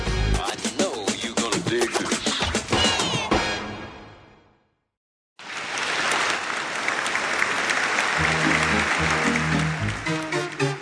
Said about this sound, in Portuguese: Ouviu o barulho dos aplausos. Respirou e o cheiro de tecido barato de sua roupa lhe incomodou, assim como a forte iluminação do picadeiro.